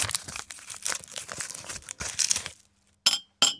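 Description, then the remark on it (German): A thin paper wrapper holding a pair of sugar cubes rustles and tears for a couple of seconds, then after a brief silence two sharp, bright clinks ring out as the sugar cubes drop against glass or china. “Hier oft als Würfel Duo in einer hauchdünnen Papierverpackung.”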